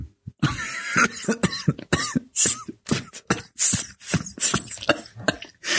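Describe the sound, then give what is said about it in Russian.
A long, drawn-out fit of coughing: a dozen or so harsh, loud hacks in an uneven rhythm, with some throat clearing mixed in and no talking. “Господи, господи, какой неловкий длинный кашель.”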